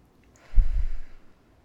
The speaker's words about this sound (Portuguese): Mão na barriga. Mão na barriga. Tira todo o ar.